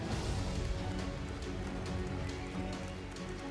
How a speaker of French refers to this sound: Commençons d'abord par des applaudissements pour tous les jeunes dans cette salle.